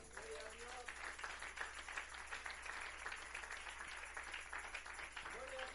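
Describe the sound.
A crowd applauds the Lord steadily for about six seconds, a dense, even wash of many hands clapping, with brief voices or calls rising over it at the start and again at the end.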